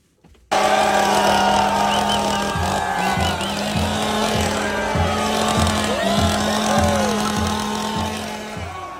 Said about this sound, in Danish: Og så skal vi øh, høre fra manden med motorsaven